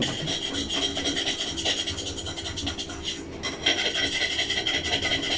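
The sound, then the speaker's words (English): Continuous harsh scraping and rasping of a pan being scraped, with a rough, gritty texture that keeps going in uneven strokes, fairly loud with no talking. “And he's currently trying to be a one man band by scraping the pan.”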